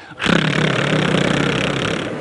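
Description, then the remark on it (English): A single sustained rolled R done as a vocal warm-up exercise, a steady buzzing tongue trill that rattles evenly for about two seconds at a loud, constant level with no talking over it. “And then roll an R.”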